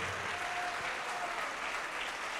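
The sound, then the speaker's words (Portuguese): An audience in a church service claps steadily, applauding a prophetic word: a dense, continuous wash of many hands applauding at an even level throughout, with no voices standing out. “Então dê para esta palavra a melhor salva de palmas de toda a sua vida.”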